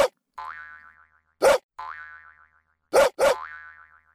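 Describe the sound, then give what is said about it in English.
Cartoonish springy boings accompany the pets Cheeky and Roar bouncing on a trampoline: each sharp thump is followed by a wobbling, twangy tone that warbles and fades, about four bounces in an uneven rhythm, with no talking. “Oh, they are jumping on the trampoline.”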